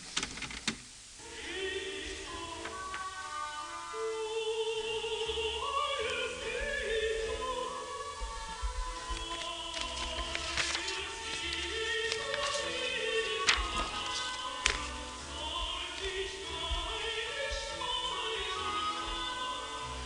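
Opening of the original version of a secular cantata (Cantata Profana), written for contralto in a lower key: an oboe d'amore sings a flowing melody over steady string accompaniment, continuous and moderately loud, no voices.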